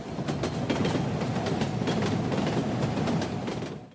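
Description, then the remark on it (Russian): Steady rumble of a train rolling along the track, with rapid rhythmic clacking of wheels over rail joints repeating throughout. No voices. “Итак, сегодня мы поговорим про Николая Первого и, как мне кажется, основным лейтмотивом правления Николая I должен быть стук колес. Например, вот такой.”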